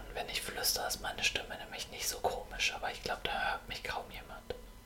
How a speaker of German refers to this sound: Ich kann auch flüstern.